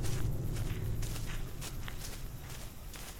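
Footsteps crunch along at a steady walking pace, six people stepping at once over a rough, stony road in the dark and bitter cold, with a low rumble of background noise underneath and no voices.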